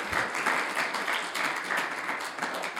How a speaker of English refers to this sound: I think we should give our terrific panel a round of applause for their sharing their perspective this afternoon.